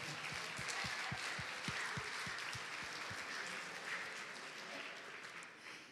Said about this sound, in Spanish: Un aplauso para hermano.